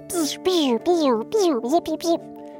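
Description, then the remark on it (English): A voice makes playful sound effects imitating sparks flying: a quick series of five or six tonal, swooping vocal bursts, fairly loud, with a faint steady hum underneath. “Those are sparks flying. Sound effects by me.”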